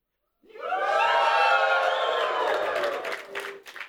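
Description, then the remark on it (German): A crowd bursts into loud, sustained cheering and whooping for several seconds, many voices shouting together before it fades toward the end, with a few claps scattered in. “Das war nicht schlecht rein akustisch, aber äh, müsst genau herhören. Jubel und Freudentänze.”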